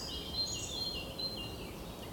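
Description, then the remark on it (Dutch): Soft birdsong, several thin high chirps and whistles scattered over a steady low background hum, no voices present. “Maar ik laat nog even lekker de vogeltjes op de achtergrond fluiten.”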